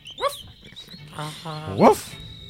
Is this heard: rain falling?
no